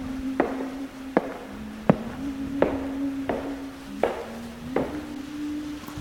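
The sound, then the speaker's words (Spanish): About seven sharp, evenly paced footsteps, each a crisp knock-like thud, sounding over a steady low hum with no one talking. “Oh, escuchan los pasos otra vez.”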